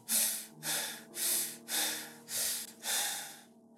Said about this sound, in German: atmet schwer